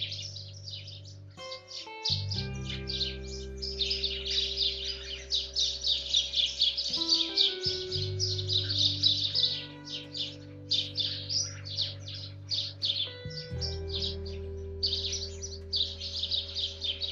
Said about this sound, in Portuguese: E com a bênção dos passarinhos